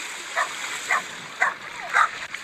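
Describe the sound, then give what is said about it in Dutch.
A watchdog on a boat behind a sailing boat barks four times in a steady rhythm, each bark short and fairly high-pitched, over a constant hissing background with no one talking. “Zo, de waakhond is teruggeroepen.”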